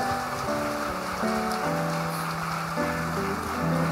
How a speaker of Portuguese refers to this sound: Vamos aplaudir ao Senhor por todas estas pessoas.